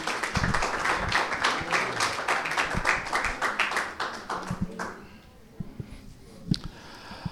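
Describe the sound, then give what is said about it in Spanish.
A church audience breaks into loud, steady applause to welcome the pastor bringing the morning's sermon, a dense rush of many hands clapping that thins out after about five seconds, leaving a few scattered claps and taps. “quiero invitarles a que todos recibamos con un aplauso muy fuerte de honra al pastor”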